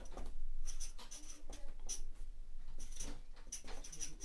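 Close, scratchy strokes of a pen or pencil moving across paper in short irregular bursts, with faint rustling between them and no talking.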